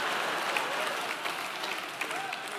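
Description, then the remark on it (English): A church audience claps steadily for a few seconds during a sermon, a dense, even wash of many hands at moderate loudness, with a few sharper claps poking through and faint crowd murmur underneath. “Don't clap for that.”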